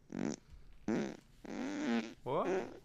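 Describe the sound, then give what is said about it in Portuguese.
Four loud, buzzy fart sound effects in a row, played as the sound of a motorbike starting, each a short brassy blast with a wobbling, sliding pitch, separated by brief pauses; a voice is briefly heard. “Esse- Ligando a moto, eles têm diversos tipos de peido.”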